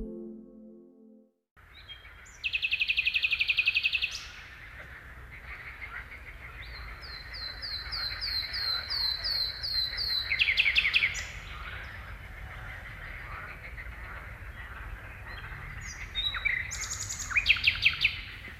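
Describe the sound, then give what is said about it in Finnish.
A thrush nightingale sings loudly and persistently, mixing rapid repeated chirps, clicking rattles and high whistled phrases in varied bursts, with no talking. “Eteläisessä Suomessa melko tavallisen satakielen laulu on helppo tuntea.”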